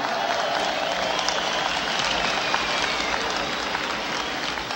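A large crowd at the Woodstock festival claps steadily as the farmer Yasgur addresses them, a dense, unbroken wash of applause holding an even loudness for several seconds, with a few faint voices mixed into the noise.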